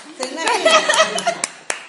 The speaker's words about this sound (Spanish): Bravo, bravo. Bueno. La única boluda que aplaude.